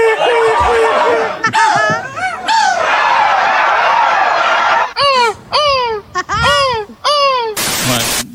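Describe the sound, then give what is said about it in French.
A person loudly imitates a seagull's cry as a contestant at the world seagull-cry championship, starting with a long, wavering squawk and then breaking into a quick series of sharp, repeated shrieks, with no other sounds. “Et eh oui, c'est le eh. championnat, du monde du cri de la mouette.”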